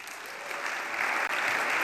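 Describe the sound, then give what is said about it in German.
Steady applause from a crowd, a dense wash of many hands clapping at an even level that swells slightly midway and continues without any voices, before German Federal President Frank-Walter Steinmeier enters to accept his election. “Als erst kommt Applaus.”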